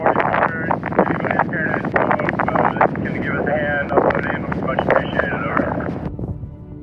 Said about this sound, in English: Here's a clip of what daily supply coordination sounded like. And as a note, you can really hear how windy it is.